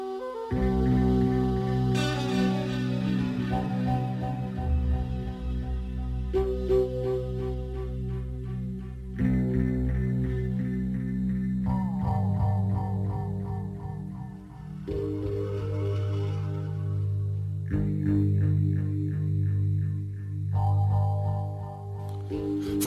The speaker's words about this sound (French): Je tiens à signaler que tout cet album est à écouter, que toutes les musiques sont, sont pas plus légères que celles que vous allez entendre, mais en tout cas, euh, ben ça, ça fait réfléchir, quoi.